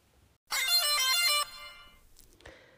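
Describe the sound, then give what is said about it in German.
A smart white cane's horn signal, which does not sound like a real horn: a bright electronic melody of quick stepping tones lasting about a second, loud, then a faint fading tail and quiet. “Genau, das ist der Sound von der Hupe.”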